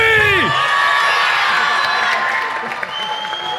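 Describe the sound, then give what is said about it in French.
A loud crowd cheers and applauds, a dense wash of clapping mixed with shouts and whoops that stays steady throughout, with a brief voice rising at the very start. “Moi, je veux un maximum de bruit là Du bruit”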